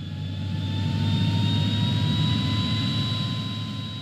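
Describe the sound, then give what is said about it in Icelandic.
A jet airliner roars steadily as it accelerates down the runway at about 120 km/h, a deep rumbling engine noise with a high turbine whine rising slowly in pitch throughout. No voices are heard. “Hann var með hugan við stjórntækin eflaust, þóttan hans ætti nú niður flugbrautina á 120 km hraða.”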